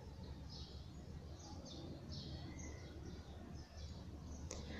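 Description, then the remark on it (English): Several birds chirp in short, repeated bursts in the early morning at almost 6 a.m., scattered across a steady hiss of outdoor background noise, with no one talking. “Let me go so you can hear the bird sound.”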